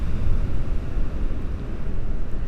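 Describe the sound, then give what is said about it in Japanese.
Rough ocean waves break on a beach closed to visitors in a continuous, heavy roar with a strong low rumble, loud, with no voices present. “夏に江ノ水に行って以来の波音あ良かった波音が聞こえていて今日は結構すごい荒い波なので”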